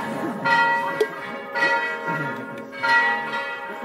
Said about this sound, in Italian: Voi mi sentite lo stesso nonostante le campane?